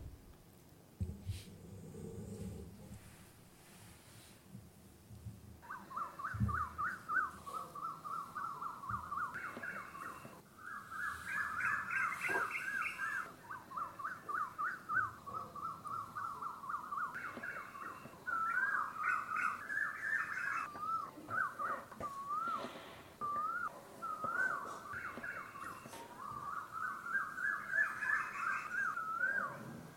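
Birds singing in a steady, warbling stream of mid-pitched calls with wavering pitch, beginning after a few seconds of low rumbling noise and continuing fairly loudly to the end, with no talking.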